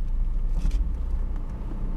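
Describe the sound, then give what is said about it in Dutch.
A car driving steadily over a sea dike on a very windy day, heard as a continuous low road rumble and engine drone with a faint airy hiss above it, fairly loud, with no voices. “En je bent nog nooit met de auto geweest. Dit is wel bijzonder. En we rijden over de dijk naar de andere kant.”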